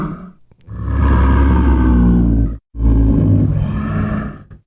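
A bear roars loudly in two long, rough bursts separated by a brief pause, deep and growling, drawing close, with no voices present.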